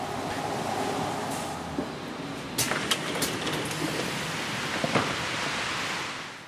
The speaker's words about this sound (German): Kaum steige ich aus dem Bus, fliegt fast der Windschutz meines mobilen Rekorders davon. Es ist immer noch extrem windig und nass hier draußen.